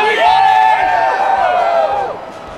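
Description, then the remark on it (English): A large crowd at BronyCon 2012 in the Meadowlands Convention Center, New Jersey, roars and cheers loudly, with many overlapping shouts and whoops rising together, holding strong for about two seconds before tapering off into a lower murmur. “Let's hear it for BronyCon 2012,”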